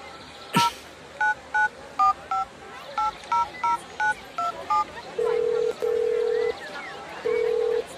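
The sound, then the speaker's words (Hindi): A quick run of about ten phone keypad dialing beeps, short and evenly spaced, as someone calls another person, followed by three longer steady ringback tones over a soft background hiss. “तुम उन्हें फोन तो लगाओ जो भी तुम्हारे मन में है अपने आप बोल दोगे”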